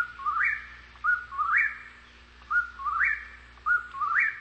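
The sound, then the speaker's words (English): A whippoorwill calls four times in quick succession, each clear whistled phrase rising sharply at the end, repeating in a steady rhythm against a quiet night background with no talking. “And uh, just for for our listeners, if you if you haven't heard what a whippoorwill sounds like, Check this out.”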